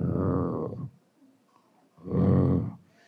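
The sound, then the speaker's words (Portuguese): A voice imitates the roaring whoosh of an airplane passing overhead at night that seems to brake. There are two loud, rough, drawn-out bursts separated by a short pause. “E aí, tem um certo lugar ali que não sei, parece que o cara puxa um freio, que ele faz.”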